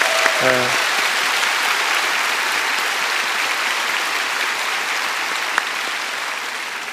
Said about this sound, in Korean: 다시 한번 큰 박수로 격려합니다. 사랑합니다.